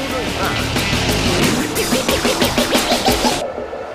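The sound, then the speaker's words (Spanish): Loud Formula 1 racing car engines roar and whine continuously, with rapid revving surges rising and falling in quick succession, intense, before the sharp high edge cuts away near the end. “El rugir de los motores llega a juego limpio con la Fórmula 1 y más.”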